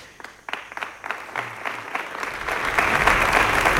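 Audience applause follows Juan Moreno's words proposing Jesús Aguirre as president of the Parliament. It starts with a few scattered claps, then swells into steady, dense clapping from a large crowd that grows louder and fuller toward the end.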